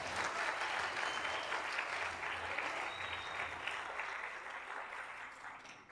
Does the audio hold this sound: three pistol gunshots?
no